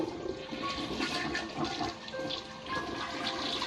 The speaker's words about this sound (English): You hear the flushing of the toilet and Hank opening the door.